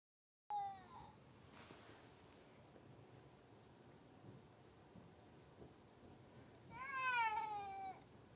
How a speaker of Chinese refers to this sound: 音频十二：列车午夜的婴儿哭声。